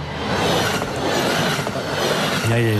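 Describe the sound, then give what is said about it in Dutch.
Train wheels clatter over rails in a loud, steady rumble, broken by a few sharp rhythmic clacks, with a brief high tonal squeal rising near the end; no one speaks. “Het geluid is wel gezellig, kedengedeng.”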